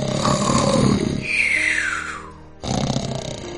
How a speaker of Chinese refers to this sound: 幸运的话，有些晚上他会坐在我的椅子上打瞌睡，就算他的呼噜震天响，